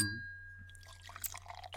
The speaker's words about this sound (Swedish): Häller upp en till.